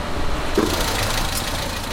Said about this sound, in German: Ein Auto fährt vor.